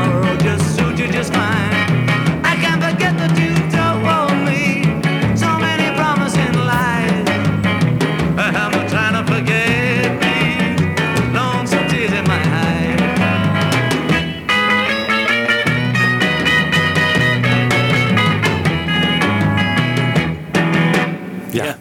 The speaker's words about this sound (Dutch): Ja, ja klinkt als een eh, lead guitar.